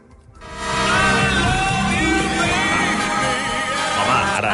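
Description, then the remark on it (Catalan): A song by a British crooner: a full, sustained musical passage swells in after a brief quiet start, with a warm sung vocal line gliding over rich accompaniment, steady and fairly loud throughout. “però és, eh, és un cantant Tampoc. britànic que sona així.”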